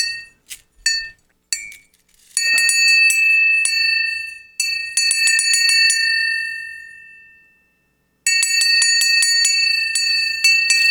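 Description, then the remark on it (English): A small metal bell that survived an atomic blast rings, first a few light separate strikes, then rapid continuous jingling that rings out and fades, followed by another bright burst of ringing. No one speaks. “Still rings, even after uh, having been through an atomic blast.”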